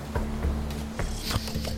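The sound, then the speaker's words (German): A man's trouser fly zipper is pulled open as he stands beside the nose of an airplane to urinate: a few quick raspy ratcheting bursts over a steady low background hum. “Stellt sich direkt neben die Nase des Flugzeugs, macht seinen Hosenstall auf und mit dem schlimmsten Fluchen, das man in russischer Sprache irgendwie über die Lippen kriegt, jauchzt und frohlockt er, dass er endlich pinkeln kann.”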